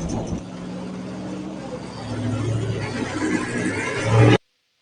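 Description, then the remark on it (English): A truck's engine rumbles, a deep steady drone that grows louder as it slowly backs out of a yard, with faint indistinct voices in the background before it cuts off abruptly. “They're doing a special back the truck out of the yard operation and cannot talk to us.”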